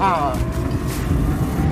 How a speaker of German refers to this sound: Ein bisschen gut beschleunigt, gut beschleunigt, aber was ist das für ein Krach hier? Das ist der UFO-Sound für die Zuschauer auf den WPs, dass die überhaupt wissen, dass ein schnelles Auto kommt. Sonst haben die ja keine Idee.